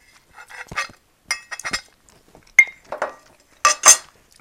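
Cutlery clinks and scrapes against a plate in irregular bursts, a spoon tapping and scraping through a meal of fried rice. Bright, sharp metallic clicks come in small clusters with short pauses, and no one speaks.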